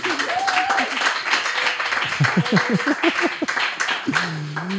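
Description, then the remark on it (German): The audience of the Chaos Computer Club Berlin claps and cheers in a dense, noisy burst, with whoops and shouted voices rising and falling over the steady patter of applause. “Und äh, das Publikum des Chaos Computer Clubs Berlin, das vielleicht mal ein bisschen äh, Lärm und Geräusch machen kann.”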